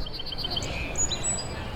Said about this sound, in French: Le jour commence à se lever, les oiseaux chantent. Il est 5h24.